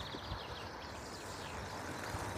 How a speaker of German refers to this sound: Jetzt kommt hier ein Auto vorbeigefahren.